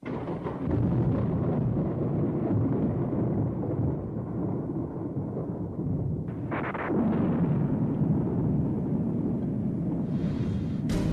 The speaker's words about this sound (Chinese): 爷爷好，我想问你一个小问号：为什么夏天下雨会打雷和闪电？ 天上为什么会打雷闪电？